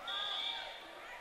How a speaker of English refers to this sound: So you hear the whistle. Faith can serve at any point.